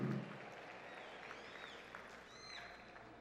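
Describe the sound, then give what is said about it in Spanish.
An audience at a church service claps steadily throughout in applause to the Lord, a dense, sustained wash of applause with a few faint whistles rising above it, with no one speaking. “Alguien que lo reciba, dele un fuerte aplauso al Señor ahí.”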